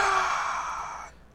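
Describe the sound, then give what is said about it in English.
A single drawn-out yawn, breathy and airy, lasting about a second before trailing off into quiet. “Was that a yawn?”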